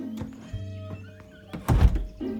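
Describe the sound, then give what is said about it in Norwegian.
A dull, heavy thud lands about two-thirds of the way through, a single solid impact of someone bumping into a door that is only painted on a wall, with a brief low rumble and softer knocks around it. “Men i alle dager, denne døren virker jo ikke! Hæ? Det er jo bare en vegg!”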